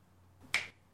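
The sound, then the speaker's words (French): A single crisp finger snap imitating Thanos's snap, sharp and bright, standing alone against a faint low background hum and fading almost immediately. “et ah, claquement de doigts.”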